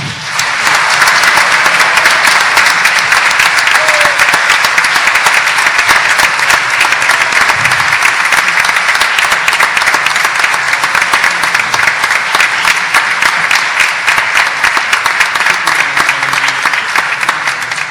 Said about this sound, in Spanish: Estamos muy felices hoy de celebrar 73 años de manera ininterrumpida en el aire del ciclo Las dos carátulas, el Teatro de la Humanidad, y se merece un fuerte aplauso.